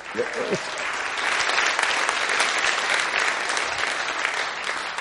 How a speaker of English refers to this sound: Um, you might like to give them a round of applause because it,